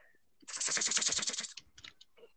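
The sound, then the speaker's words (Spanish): A rapid burst of computer keyboard typing, fairly loud, with dense clattering keystrokes for about a second, then a few scattered clicks trailing off. “¿Se escucha el teclado?”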